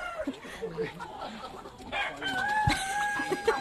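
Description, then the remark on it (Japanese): A flock of chickens in a coop, from which eggs are collected, clucks and crows together in a busy, overlapping chorus, with sustained rooster calls rising over constant background clucking and some faint talk mixed in. “これねしばらく5分ぐらいこの鶏の鳴き声だけを皆さん聞いてください。”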